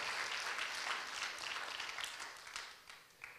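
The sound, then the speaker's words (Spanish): A church audience breaks into sustained applause, many hands clapping in a dense, steady wash that gradually thins out toward the end. “entonces dale un aplauso al Señor.”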